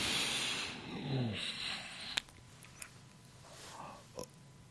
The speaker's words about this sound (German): Es gibt kein Leben ohne Sauerstoff. Deswegen ist es ganz, ganz wichtig, ein und aus ah, zu atmen. Und beim Einatmen